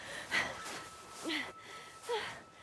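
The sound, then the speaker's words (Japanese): Heavy, out-of-breath panting from a person in their twenties, three breathy gasps with a slight voiced edge coming at a steady rhythm, with no talking. “その時ようやく気づきました20代の私がこんなに息切れしているのに前を行くおばあさんは息切れどころかまるで平らな道を歩くように平然と進んでいくのです”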